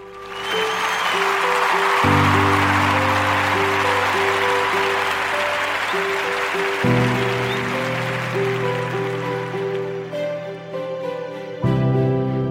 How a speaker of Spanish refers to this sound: Por eso estos aplausos van para ti.